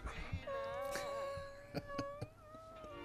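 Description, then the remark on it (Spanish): A drawn-out, wavering wail of people crying rises and dips for a few seconds, broken by a few short sharp catches, with no speech. “¿no has oído? Claro, gente que llora.”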